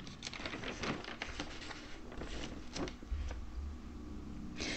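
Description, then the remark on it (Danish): Paper pages being flipped, a run of soft crisp rustles and quick swishes in an irregular rhythm, with no talking over them. “Nu skal jeg lige bladre lidt, så kommer der sådan nogle bladerlyde.”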